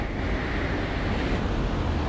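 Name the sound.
rain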